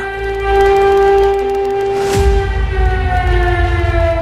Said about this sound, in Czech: Přesně ve 12.20 se Prahou rozlehl ostrý hvist sirén.